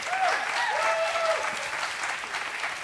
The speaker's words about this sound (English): And then finally, feel free to clap.